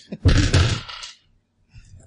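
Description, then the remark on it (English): Black dice clatter and tumble across a table in a fairly loud burst lasting about a second, followed by a brief quiet and a faint murmur of voices. “You roll those, big guy.”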